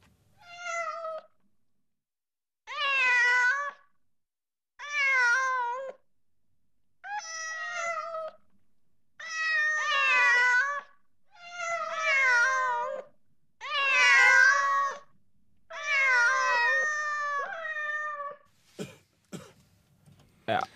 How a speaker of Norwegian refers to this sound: Så vi sendte eh, noen katter opp på scenen. Og du får jo høre sjøl hvordan det gikk.